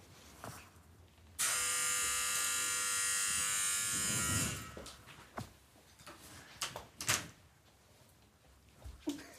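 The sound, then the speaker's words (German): A front door being opened after the doorbell rang: a loud, steady electric buzz holds for about three seconds, then a series of scattered clicks, clunks and soft knocks follows, with no one speaking. “Ich mach mal kurz die Tür auf, warte kurz.”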